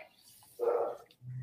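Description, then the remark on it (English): A single muffled dog bark sounds from somewhere in the background, brief, followed by a low thud-like noise; no one is speaking. “I don't know if you can hear the dog barking in the background.”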